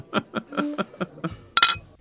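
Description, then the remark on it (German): Beer glasses clink together several times in quick, uneven succession, bright, the last strike ringing out a little longer than the rest, as in a toast. “Prost. Prost.”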